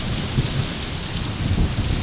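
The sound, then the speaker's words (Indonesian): A low, steady rumble of thunder, less than three miles away somewhere over the woods, rolls beneath a constant wash of rain, with no voices present. “Dentuman lagi. Hanya tiga detak, kurang dari tiga mil. Di sana, di suatu tempat di hutan itu.”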